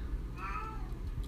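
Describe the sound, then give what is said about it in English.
A single drawn-out meow from a household pet cat, rising and then falling in pitch, over a low background rumble with no one talking. “That's our cat.”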